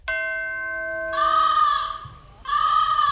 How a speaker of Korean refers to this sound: 오늘 어, 까마귀 소리 많이 올라가네. 아, 진짜. 아, 이 까마귀 소리가 여러 번 올라가네.